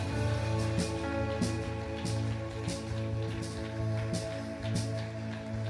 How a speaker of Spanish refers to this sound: aplauso de alabanza al Señor.